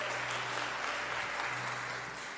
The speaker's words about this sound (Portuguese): Se é para aplaudir o Senhor, é aplaude dando glória. Uh!